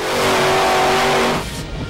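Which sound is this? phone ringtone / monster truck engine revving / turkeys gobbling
monster truck engine revving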